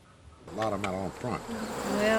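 Honeybees buzz around their hives in West Virginia while a beekeeper inspects the hives of a former coal miner; several droning wingbeats overlap and shift in pitch as insects pass, forming a steady, rising hum with no talking.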